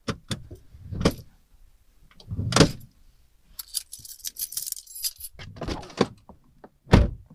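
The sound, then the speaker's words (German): Handling noises inside a parked car: several dull thumps and clunks at irregular intervals, with a bright jangle of keys in the middle. No one speaks. “Ich bin im Auto.”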